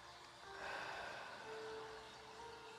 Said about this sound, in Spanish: Inhalamos y exhalamos Y así, con nuestro cuerpo relajado, respirando profundamente